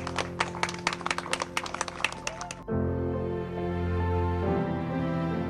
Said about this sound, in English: Thanks, Captain Tom! Thanks, Captain Tom! And there he goes. Let's give him a big round of applause.